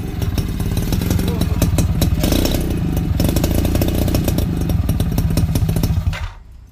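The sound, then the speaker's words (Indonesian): An old motorcycle engine idles, a loud, steady rattling putter with uneven pulses, running continuously before abruptly cutting off near the end. “Enggak, motor motor tua kan masih pakai cup.”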